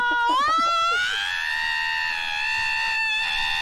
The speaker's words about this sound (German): Oh, die Uhr klingelt. Also ist es schon wieder so spät.